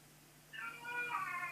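A cat meows in a drawn-out, rising cry that starts about halfway through and swells louder toward the end, heard alone over a faint background hum.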